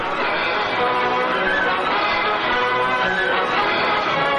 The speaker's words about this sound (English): It's our pre uh, pre stream music.